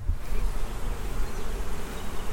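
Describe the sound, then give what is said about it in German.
A dense, continuous hum of many honeybees buzzing at a hive entrance, recorded with a microphone held into the hive, steady and fairly loud with no voices. “Das summt schon ordentlich hier.”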